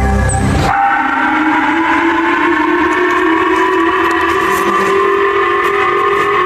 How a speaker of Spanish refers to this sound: Así se escucharon las alarmas antimisiles en las prefecturas de Hokkaido y Amori, ubicadas al noreste de Japón, luego de que un misil transatlántico fuera disparado desde Corea del Norte y atravesara el espacio aéreo de este país.